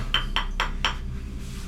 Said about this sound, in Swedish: I rummet bredvid. Det låter som om någon mm. knackar på en ruta.